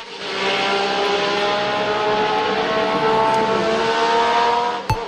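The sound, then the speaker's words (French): A racing car driven flat out by racing driver Gilles screams at full throttle, a loud, sustained high-revving roar with steady harmonic whine lasting several seconds, then a brief sharp knock right at the end. “Et donc, Gilles, ce qui l'intéressait, c'était d'aller à fond avec sa voiture.”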